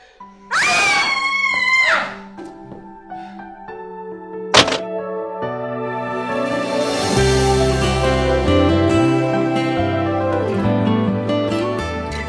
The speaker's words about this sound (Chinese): 这个时候，女主拿着 DV，神色诡异的开始自拍，并且大声尖叫，然后开始滚字幕。